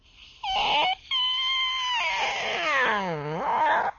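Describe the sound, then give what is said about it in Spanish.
A squeaky door hinge creaks in a few drawn-out, high-pitched squeals. The last one wavers and dips lower before rising again. No one speaks. “a veces las bisagras están enfermas y se quejan con chilliditos.”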